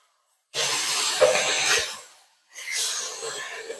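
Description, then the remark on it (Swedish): Hamburgers sizzle loudly on a griddle as they are flipped, in two bursts of crackling hiss, the first lasting over a second, then a brief lull before a second steady sizzle. Nobody speaks. “Jag tror att de merparten av oss kommer bara höra ett jädra eh, mm. gräsande här.”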